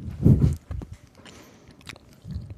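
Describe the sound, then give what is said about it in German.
A crunchy bite into a small piece of orange-flavoured chocolate, followed by a few moist chewing sounds and another muffled crunch near the end; no talking. “Knusper, knusper.”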